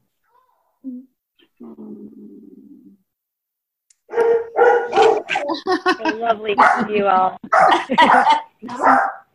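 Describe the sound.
A puppy barks in short, high yips, a burst of sharp barks overlapping with a person talking, after a quieter stretch with a faint whimper and low murmur.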